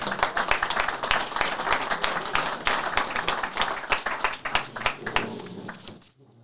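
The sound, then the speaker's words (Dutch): Sustained applause from an audience for four local party representatives (PvdA-GroenLinks, VVD, ChristenUnie, CDA) invited to the table, dense overlapping hand claps lasting about six seconds, steady and fairly loud before tapering off quickly at the end. “Mag ik een warm applaus voor deze vier namen?”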